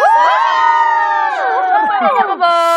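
A crowd of high-pitched voices screams and cheers together in a loud, continuous burst, with overlapping sliding shrieks for a few seconds and no speech.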